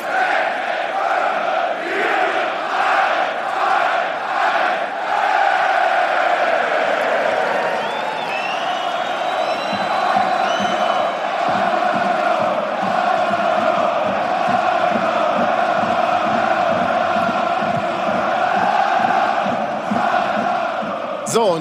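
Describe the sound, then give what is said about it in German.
A sold-out crowd of 16,725 at the Stadion An der Alten Försterei football stadium chants loudly and steadily in unison, a dense roar of many voices with rhythmic clapping pulses joining in partway through. “Das Stadion in der Alten Försterei ist ausverkauft. 16.725 sind da und den gehört jetzt dieser Augenblick.”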